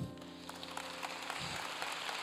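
An audience claps together in a steady, scattered patter of many hands, fairly soft and somewhat distant, with a low sustained hum underneath and no voices.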